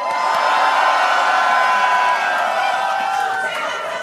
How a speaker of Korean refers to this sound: 약 26만 명의 시민들이 지금 우리 아. 방송 앞에 와있습니다 환호성 한번 보내주시기 바랍니다.